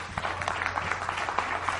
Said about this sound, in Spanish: Así que pido también un aplauso muy fuerte pues a su diamante,